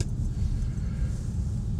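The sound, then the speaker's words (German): A large dump truck's engine rumbles steadily, a deep low-pitched drone with road noise as the truck slowly turns off the main road. No voices are present. “Es ist, geht mir schon wieder so, ah, der riesige Muldenkipper biegt ab.”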